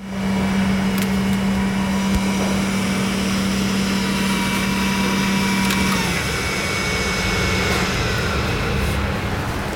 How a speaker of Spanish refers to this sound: lo que tenemos que hacer es apagar ya todas las máquinas, eh, todas las cabinas, ya han sido desinfectadas, ya están pasados sus minutos en ultravioleta, es el último periodo en el laboratorio, apagamos también las PCRs.